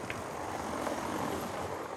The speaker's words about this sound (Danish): Øhm, jeg er nødt til at sige, der kører, der er meget trafik. Det er helt vildt. Lige her, øh, vi sidder på, i Nedergade jo,